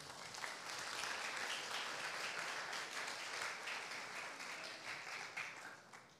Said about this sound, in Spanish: Dale una ofrenda de palmas al rey.